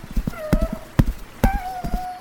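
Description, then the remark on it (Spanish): Horse hooves clip-clop in a steady, uneven trot as a horse is ridden along a riverbank, each hit sharp, while a thin, wavering moan-like tone of laments from among reeds drifts faintly over the footsteps. “Cabalgaba por la ribera de un río cuando escuchó unos lamentos entre unos juncos”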